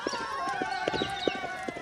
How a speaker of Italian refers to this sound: Tex, sta arrivando qualcuno al gran galoppo.